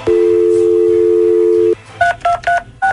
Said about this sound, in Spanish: Vamos a marcarle. Claro. Porque vamos a marcar, ¿ok?